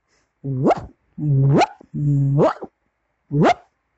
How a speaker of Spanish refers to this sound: Dorothy casi se cae del susto, mientras que Totó comenzó a ladrar.